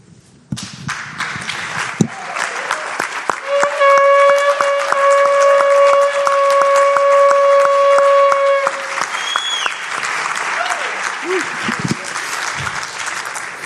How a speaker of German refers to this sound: Und von daher möchte ich dich bitten, dass du einmal reinbläst und wir dürfen mal so Gott so einen richtig fetten Applaus geben.